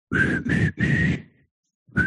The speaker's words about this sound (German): du musst ein bisschen am Mikrofon vorbeipfeifen. Ich pfeife ihn auch rein. ja, lieber ein bisschen vorbeipfeifen.